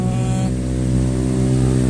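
A loud, close motorcycle engine drones steadily with a rough, buzzing hum, its pitch shifting slightly as it rumbles past. No one speaks.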